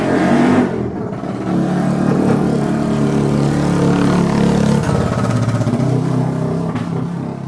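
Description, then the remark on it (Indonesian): A loud motor vehicle exhaust roars and revs as it passes by, its throaty engine note rising and falling continuously with no voices present. “Mohon maaf tadi iklan knalpot nomor 2.”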